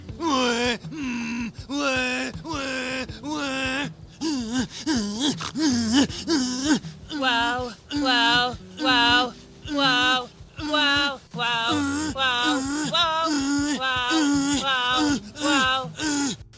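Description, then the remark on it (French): A Japanese woman moans and cries out loudly and repeatedly during sex with a businessman in his hotel room, with rising and falling wails coming in quick rhythmic bursts, continuous with no talking. “Il se dit Comme elle crie très fort, c'est que j'assure un max.”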